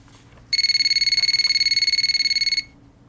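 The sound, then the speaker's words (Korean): A phone rings with a rapid, trilling electronic burst, pulsing steadily at a high pitch for about two seconds before cutting off, over a faint low hum with no one speaking. “그리고 며칠 후 수지에게서 전화가 왔습니다.”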